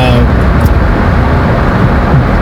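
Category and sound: vehicle, car interior road noise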